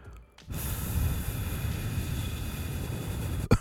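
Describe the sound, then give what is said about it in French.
A voice imitates a kettle's hiss, a steady breathy white-noise rush lasting about three seconds, held fairly loud, then cut off by a brief sharp breath at the end. “Lui, il y a un petit bruit de fond, j'aperçois un bruit blanc ou une chute d'eau. Un genre de. Un petit peu comme ta bouilloire tantôt, là, elle faisait”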